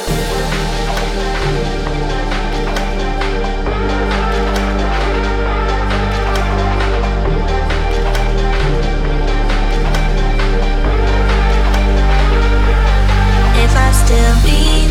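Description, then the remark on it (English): An electronic dance track plays loudly, with a steady pulsing beat, deep sustained bass and layered synth chords that shift every few seconds. No voices are heard. “First up, we have my song with … called ….”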